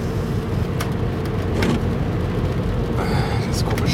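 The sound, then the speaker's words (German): A rear windshield wiper scrapes across the glass in several short, scratchy passes, heard from inside a car moving along the B224 over a steady low road rumble. “kratzige Geräusch von hinten ist der Scheibenwischer hinten.”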